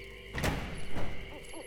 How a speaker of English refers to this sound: pulled open the door to a soundstage, allowing Brett through first